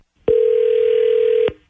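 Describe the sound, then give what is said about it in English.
A loud, steady telephone dial tone hums for just over a second while a call to a woman's husband is being placed, starting and stopping abruptly, with no voices heard. “sit tight while we get your husband Bruce on the phone”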